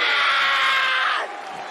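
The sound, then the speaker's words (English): A loud, sustained roar of a large crowd screaming and cheering in an arena at a wrestling match, high-pitched and dense, dropping off in intensity toward the end. “Yeah, th- th- this was the this is part of the screaming. I think you heard.”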